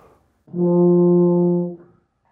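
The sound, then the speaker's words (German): A single sustained tuba note, played with the lips held as far apart as possible, almost two fingers wide, so they vibrate freely; low and steady, with a warm, open brass tone rich in even harmonics, held for about a second before cutting off cleanly. “Bei der Tuba geht das natürlich ziemlich weit.”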